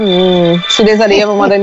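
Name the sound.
mobile phone ringtone playing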